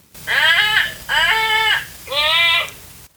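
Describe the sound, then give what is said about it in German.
A sloth call played from a children's animal sound book: three loud, drawn-out, bleating cries with a nasal, tonal quality, evenly spaced, each about a second long, with no talking. “so klingt ein Faultier.”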